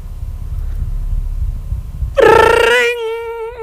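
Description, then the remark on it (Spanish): A telephone rings loudly and suddenly with a bright, warbling electronic tone that sustains to the end, following a couple of seconds of low, muffled rumble. “Eso creo que es que está sonando un teléfono.”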